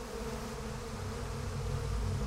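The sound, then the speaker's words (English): A steady, dense buzzing of bees, droning continuously, with a low hum that swells slightly toward the end and no voices. “Want me to kill those bees?”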